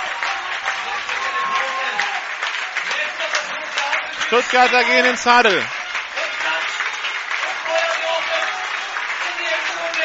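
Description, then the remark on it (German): A large stadium crowd at an American football game roars with cheering and applause throughout, a loud dense wash of noise, while a commentator talks over it in German and a brief rising horn-like blare cuts through midway. “Publikum ist da.”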